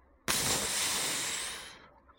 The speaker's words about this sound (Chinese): 猛喷。蚊虫喷杀剂，蚊子精喊道：“啊，没命了！”于是纷纷落地。